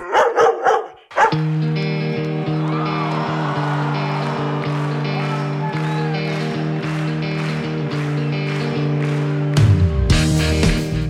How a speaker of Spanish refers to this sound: El reconocido filósofo griego Heráclito escribió, Los perros ladran lo que no conocen.